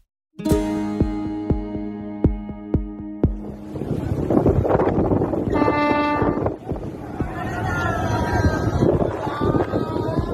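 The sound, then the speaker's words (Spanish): A crowded boat carrying at least 280 people arrives at the coast of El Hierro in the Canary Islands amid steady wind and water noise, with many voices shouting and calling together. It opens with a series of sharp, ringing knocks at an even pace before the crowd noise swells. “Lo que se oye es el sonido de una embarcación con al menos 280 personas llegando a las costas de la isla canaria del Hierro esta semana.”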